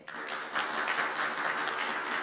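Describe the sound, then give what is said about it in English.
An audience claps steadily to vote that Jaffa cakes are a biscuit, a dense crackle of many hands that starts abruptly and holds at an even, moderately loud level throughout, with no voices on top. “Clap for biscuit.”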